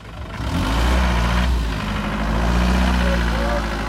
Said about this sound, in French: on voit arriver des dizaines de voitures par grappe comme ça, avec des gens qui en sortent complètement hagards, sous le choc.